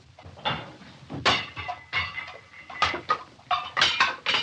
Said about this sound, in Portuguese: E lá se partiu a louça como se partia sempre que era dita esta frase, porque o Ivaristo não gostava nada.